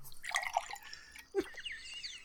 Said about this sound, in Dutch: maar ik heb hier een eh, flesje eh, Scotch whisky, de Balvenie Caribbean Cask finish. Dus echt aanrader, 14 jaar oud. Ik ga hem even opmaken. En nou ja, goed, dan gaan we gewoon eventjes een lekker scheurtje ingieten.